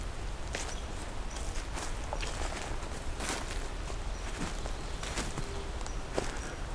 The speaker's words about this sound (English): Got a eastern chipmunk here.